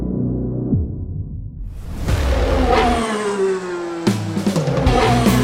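A car engine revs up loudly, its pitch climbing as it accelerates past, with a second sharp surge of revving near the end. Nobody speaks.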